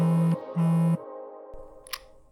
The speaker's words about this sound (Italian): Mentre lo lascio parlare sento il mio telefono vibrare.